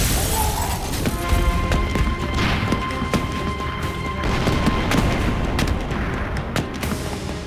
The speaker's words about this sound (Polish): rozległy się wystrzały, a na jadącą kolumnę posypały się bomby. Atak był przytłaczający. Odgłosy eksplozji słyszało całe miasto.